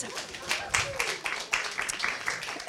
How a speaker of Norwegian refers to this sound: En liten applaus.